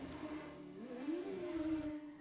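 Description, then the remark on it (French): In a film scene where cars chase a motorcycle, a vehicle engine drones steadily, then revs up, its pitch climbing and sliding back down over a couple of seconds, moderately loud with no talking. “Ouais, donc là, bon, euh, voilà, t'as des voitures qui veulent après une moto.”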